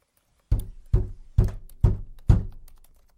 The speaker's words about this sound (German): Erstmals aus der Hand gelegt, da näherten sich schon Schritte der Tür.